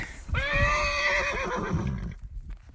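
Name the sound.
horse neighing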